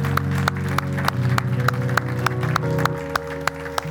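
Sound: audience clapping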